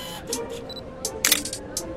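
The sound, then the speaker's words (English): A camera's mechanical shutter clicks repeatedly, about six crisp, bright snaps at a fairly steady pace, with one louder burst partway through over a faint low background hum. “Take a picture of the shit. You hear like a mechanical clicking sound.”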